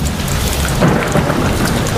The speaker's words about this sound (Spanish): Nuestro servicio meteorológico, climatológico, le vamos a pedir ahora un poco de lluvia, que es necesaria para...